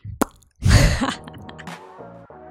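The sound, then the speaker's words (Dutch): A single sharp cork pop from a prosecco bottle, followed moments later by a loud rushing fizz that fades into softer, sustained background tones. “Met de Prosecco. Misschien moeten we er zelf maar eentje optrekken straks.”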